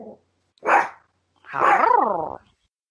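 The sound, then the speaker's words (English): A puppy barks: a brief yap, then a sharper bark, then a longer, wavering whiny bark-howl that rises and falls in pitch. No one speaks. “the puppy had things to say about Steffy's attitude as well.”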